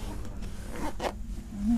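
A zipper at the front of a ski boot is pulled in a couple of quick, rasping strokes, moderately loud, over a low steady background rumble.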